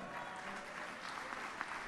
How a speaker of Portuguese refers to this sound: Aplaude mesmo, aplaude, aplaude na tua casa. Deixa o prédio inteiro saber que tem crente feliz.